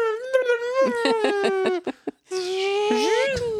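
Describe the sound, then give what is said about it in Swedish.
A voice imitates the sound effect heard whenever Gandalf does magic, like the first Star Wars film: a steady warbling, pulsing hum, a brief pause, then a brighter sustained tone that swoops upward, fairly loud. “Eh, det är, alltså, när, varje gång Gandalf ska göra någonting som har med magi att göra så låter det som första Star Wars-filmen med så här...”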